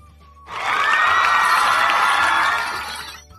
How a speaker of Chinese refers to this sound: 全场啊爆发出了一声热烈的掌声。